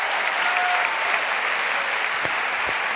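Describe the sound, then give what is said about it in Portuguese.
Steady, dense applause from a large crowd applauding the Lord in praise of God, a continuous roar of clapping hands at an even loudness throughout, with no voices standing out above it. “Será que nós podemos aplaudir ao Senhor?”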